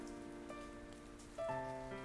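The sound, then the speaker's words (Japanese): Soft, light rain patters steadily in a forest on a steep mountain trail, the Okabu trail past the Sandaisugi cedars, beneath a faint sustained tonal hum, with no voices present. “小雨も降ってきました”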